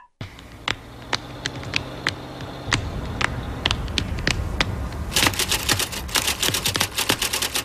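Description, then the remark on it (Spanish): In the intro of the series Fargo, sharp strikes of an old typewriter used as a musical instrument clack in a steady rhythm over a low musical backing, then quicken into rapid, dense bursts of typing that drive the piece like percussion. “a escuchar precisamente el intro de la serie Fargo, que se caracteriza por utilizar el sonido de una antigua máquina de escribir como un instrumento musical.”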